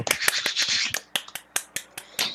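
hands clapping

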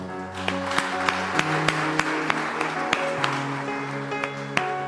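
audience applause

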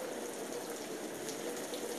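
rain falling

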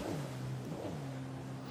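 boat passing by

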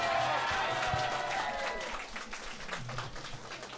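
audience applause

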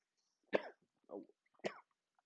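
coughing

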